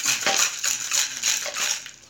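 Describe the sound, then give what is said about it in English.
Ice rattles hard inside a cocktail shaker as a Skittles cocktail of vodka, cranberry, green apple pucker, pineapple juice, watermelon pucker and grenadine is shaken, a steady rhythmic clatter of about six or seven shakes, bright and loud with no voices. “And then once you do that, you pour it in, and you shake it,”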